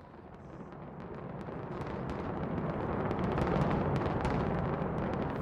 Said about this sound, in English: The Stardust was demolished in 2007 in true Las Vegas style, with fireworks and a countdown. It was even broadcast on live TV.